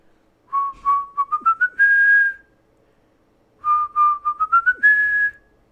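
A flute plays a short, bright melody of quick notes climbing upward to a sustained high note, then the same rising phrase repeats after a brief pause, with no voices.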